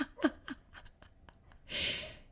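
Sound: dog whimpering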